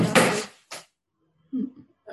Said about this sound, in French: c'est un chat, c'est juste un chat Vous voulez participer Oui, oui, oui. J'ai un chat très curieux. En fait, j'ai deux chatons qui font l'apprentissage.